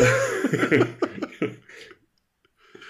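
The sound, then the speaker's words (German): A rough, raspy coughing fit from a person with Corona, several harsh bursts in quick succession, fairly loud, tapering off into near silence with a faint breath at the end. “Mit Corona hört sich das aber eher so an, wie als wäre gerade so ein Öldampfer vorbeigefahren.”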